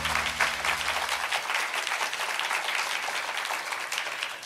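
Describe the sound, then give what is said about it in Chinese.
A crowd applauds steadily to give glory to the Lord, a dense wash of many hands clapping at an even level throughout, with a low hum fading out in the first second and a half. “拍手把荣耀归给主，好不好？”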